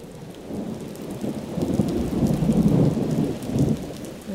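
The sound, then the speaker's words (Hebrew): A thunderstorm with steady, heavy rain and a deep rumble of thunder rolling underneath, swelling to a louder peak midway before easing slightly. No voices are present. “ואז פתאום מתחילה סערה.”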